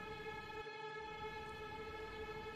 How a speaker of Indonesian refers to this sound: Karena itu, sepulang sekolah, aku memutuskan untuk melompat ke arah kereta yang sedang melaju kencang.